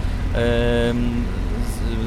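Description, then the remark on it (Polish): A 1990 Żuk van with an S21 engine and a gas cylinder for running on two fuels drones steadily while driving, heard from inside the cab as a continuous low rumble, with a brief higher tonal whine riding over it partway through. “Jedziemy, jedzie, jedziemy żukiem S21, zacznę od samochodu. E, S20, silnik S21, mamy butlę gazową, więc wspomagamy się dwoma,”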